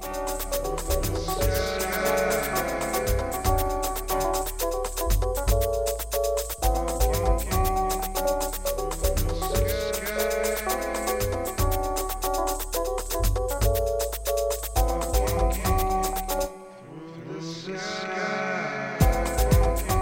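An electronic dance track plays with steady layered synth chords and percussive hits, dense and loud throughout, briefly thinning out near the end before the full mix returns.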